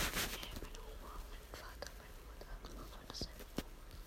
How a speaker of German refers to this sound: Jetzt hört man so das Flüstern.